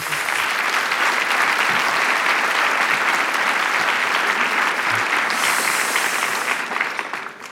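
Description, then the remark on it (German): Sustained applause from an audience at a cultural event in December, a dense, steady wash of clapping hands that stays loud for several seconds before starting to taper off at the end. “Und äh, das ist doch auch mal ein Grund zur Freude und für einen Applaus”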